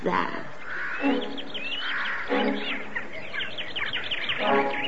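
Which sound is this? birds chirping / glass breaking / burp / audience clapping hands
birds chirping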